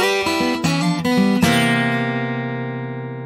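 A brief stretch of pop music from a radio broadcast: a few quick, bright synth-like chord hits step along, then a final chord rings out and slowly fades. No voices are heard.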